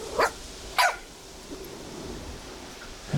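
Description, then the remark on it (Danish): Two sharp, high-pitched yaps from a small dog, one of the household's small dogs (a Coton de Tuléar and a mixed-breed dog) barking at visitors, about half a second apart, followed by a low background hum with no further barking. “Er det, er det, er det os, der stresser hundene?”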